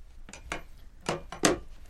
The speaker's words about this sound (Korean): 두 사람 앞으로 김이 모락모락 나는 찜닭 접시 하나를 더 올려놓는다.